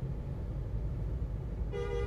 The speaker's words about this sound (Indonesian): belum ada solusi guys sabar jangan klakson saya sudah berkata tadi ya saya sudah berkata jangan klakson klakson tidak ada gunanya tidak ada gunanya kamu hanya menimbulkan keributan jangan klakson